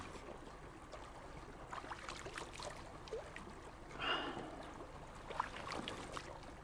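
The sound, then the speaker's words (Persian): Clear spring water flows steadily, a continuous soft rushing with occasional brighter gurgles and splashes, heard on its own without any voices. “چه آب زلالیه این آب مال چشمه است از اونجا میاد”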